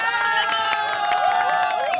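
A crowd cheers loudly and continuously, many voices shouting at once over scattered sharp claps that pop through the din.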